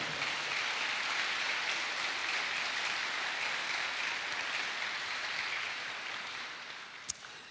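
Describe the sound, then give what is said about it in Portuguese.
Sustained applause from a church audience after a prayer, applauding the presence of Jesus: a dense, steady wash of many hands clapping that holds strong for several seconds before gradually thinning and fading toward the end, with one sharp click near the close. “Você pode aplaudir a presença dele entre nós?”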